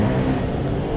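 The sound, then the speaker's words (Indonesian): Loud motorbike engines drone past on the road, a steady rumbling roar with a buzzing low pitch that fills the whole brief moment without a break. “Iya, itu ibarat kalau ini masih kalau itu masih iklan masih adsense-nya itu suara motor-motor lewat itu adsense”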